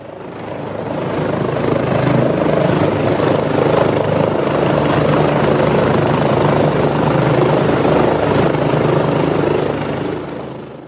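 Helicopters droning steadily over Washington, a loud continuous rotor thrum with a faint pulsing beat that swells slightly and holds for the whole stretch, no voices.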